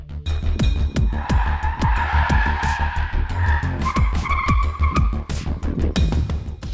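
A car's tires squeal in long, wavering screeches as the rear axle slides out and the tires lose grip, layered over a steady low engine drone, with short tonal bursts and rattles.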